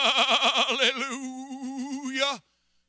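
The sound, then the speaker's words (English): A human voice imitates a sheep's bleat, one sustained wavering note with a rapid tremolo that fades into a steadier tone before stopping abruptly, fairly loud. “Are we chattering at God, telling Him, you know, oh God, oh God, oh God, oh God, oh God, trying to take up an hour, however much time you signed up for, uh, bleating like a bunch of sheep, uh, stretching our hallelujahs.”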